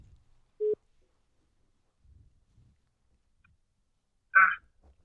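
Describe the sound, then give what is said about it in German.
A telephone ringing tone from a call being placed again sounds once as a short, steady mid-pitched beep, followed by near silence and later a brief, harsher burst of noise. No one speaks. “Ich probiere es nochmal. Gib vom Zeiger her. So, klingelt es jetzt nochmal.”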